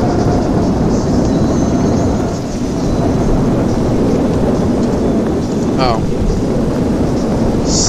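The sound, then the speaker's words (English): A video game category 10 hurricane, created by a weather storm command, roars steadily with heavy rain and gusting wind, a loud, dense wash of noise throughout, broken only by a brief electronic chirp near the end. “slash weather 2 storm. I want to say I can create a cat 10. Storm create hurricane C10.”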